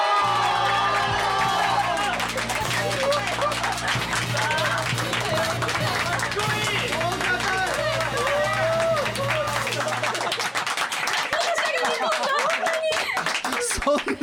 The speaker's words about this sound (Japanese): そんな心からの拍手を待って